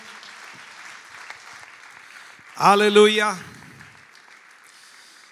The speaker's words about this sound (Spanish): Fuerte, fuerte ese aplauso de alabanza al Señor.